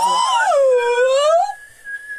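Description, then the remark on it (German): A whistled imitation of an American police siren: one loud, rich tone that swoops up, dips low, and climbs again, then levels into a steadier, fainter high note. “Ich habe mich an wie so, Amer ich hab mich so an wie amerikanische Polizei.”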